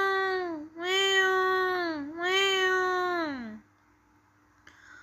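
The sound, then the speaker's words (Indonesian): A kitten meows three times in a row, each call long and loud, with a rising-then-falling whine, followed by near silence and a faint click. “Suara anak kucing yang mengeong terdengar semakin keras.”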